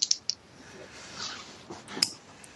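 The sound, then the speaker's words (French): A few quick, bright clicks as dice are shaken together before a roll, a tight cluster at the start and another knock about two seconds later, fairly quiet against a soft background hiss. “J'ai entendu les dés là se préparer, c'est pour ça.”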